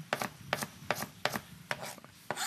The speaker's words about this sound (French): Tu coupes un oignon, tu le coupes en dés, tu viens avec les aromates.